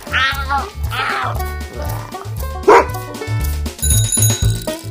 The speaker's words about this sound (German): Und du, Hund? Haben dir meine Würstchen geschmeckt? Jetzt schau mich nicht so hündisch an. Guter Hund. Ja, so ein feiner. Nein, bitte, bitte, bitte nicht. Nicht, nicht ablecken.